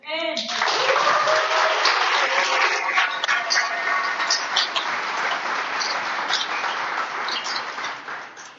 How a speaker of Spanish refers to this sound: Un aplauso.